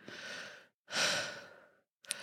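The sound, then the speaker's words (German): A voice imitates a sleeper's heavy breathing: two long, airy breaths in a slow rhythm, then the start of a third, with no talking. “Und wenn ich dann atme, weil ich, schla ich äh, manchmal schnarche ich, also vor allem, wenn ich das getrunken habe oder keine Ahnung, aber äh, sonst mache ich jetzt halt Atemgeräusche so.”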